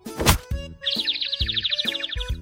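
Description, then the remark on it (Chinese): A sharp cartoon-style thwack of a little bird crashing into the ground after flying down from up high, followed by bouncy, springy tones and a rapid, high warbling twitter that runs to the end. No one speaks. “结果一不小心便撞到了地上”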